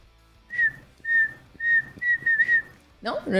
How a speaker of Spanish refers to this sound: podrías silbarme la, melodía y le pongo letra?